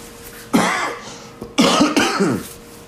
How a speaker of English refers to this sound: Hope you ain't got that COVID, motherfucker. I ain't got no COVID. Got a cough.